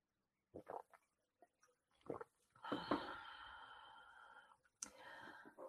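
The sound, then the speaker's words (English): Quiet slurps and wet mouth clicks from someone sipping water, followed by a long, breathy exhale and another short breath. No one speaks. “Just have a bit of water, excuse me.”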